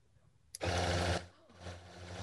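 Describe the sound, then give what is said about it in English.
A sharp click, then a rechargeable Shegasm Five Star Rabbit vibrator buzzes loudly with a steady, low motorized hum after being switched on. It dips briefly about halfway through and then comes back at a slightly softer level. “Yeah, so I would imagine so the end of that thing vibrates.”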